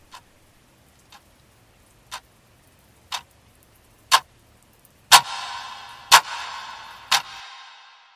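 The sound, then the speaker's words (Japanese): A room clock ticks steadily with a regular rhythm, one crisp tick each second, growing gradually louder; a soft hissing wash swells beneath the final few ticks before fading. Heard at night as someone falls asleep. “部屋の時計が規則正しいリズムを刻むのを耳にしながら。”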